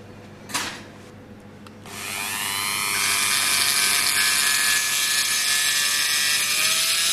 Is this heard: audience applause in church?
no